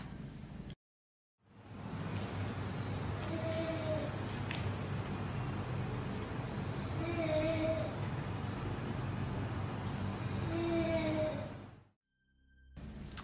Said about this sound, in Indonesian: di suaranya tuh bener-bener kalau misalnya kita mau denger kita mikirin itu suara cewek kedengeran kayak suara cewek ngerintih hmm. tapi kalau kita mikirin anak kecil kayak suara anak kecil juga